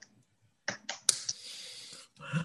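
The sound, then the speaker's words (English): A soft, quiet golf clap: a few light, evenly spaced pats followed by a brief hiss of rustling, with no voices. “This my my previous clap made noise, so here you go. Golf clap.”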